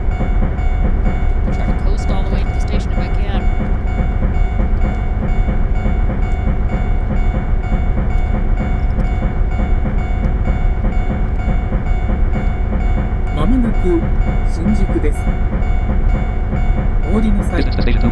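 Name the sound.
train running on rails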